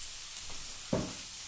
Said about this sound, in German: Deswegen nimmst du aber den Deckel, steckst den nicht ganz komplett auf den Topf, hältst ihn oben fest, am besten mit so Kochlappen, sonst verbrennst du die Daumen und gießt das Wasser einfach ab.